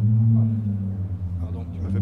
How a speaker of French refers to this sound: Ce son-là, oui, effectivement. Ça, c'est le, haut-banc qui résonne dans, dans un des flotteurs du trimaran. Qu'en fait, c'est un câble métallique qui vibre.